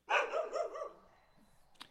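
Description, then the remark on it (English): A dog bark sound effect: a single loud bark drawn out into a wavering, yelping howl that fades over about a second, followed by a brief soft click near the end. “No, that's a sound effect I got off of YouTube.”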